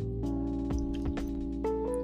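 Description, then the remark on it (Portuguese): Someone drinks water while pausing from talking, with a few soft gulps and swallowing sounds over a steady low hum, and no talking. “Então, gente, estou aqui bebendo uma água enquanto falo.”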